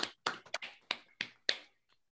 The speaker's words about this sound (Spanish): Un aplauso, por favor.